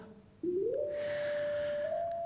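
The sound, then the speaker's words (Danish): A steady electronic synth tone starts abruptly, glides upward in pitch, then holds a sustained, buzzy note with bright harmonics until the end. No voices are heard. “Vi har tre tonegeneratorer. Tre steder, hvorfra vi kan generere en tone. Og den første tone kan vi høre.”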